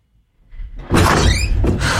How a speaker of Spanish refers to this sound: Si, abramos esta puerta.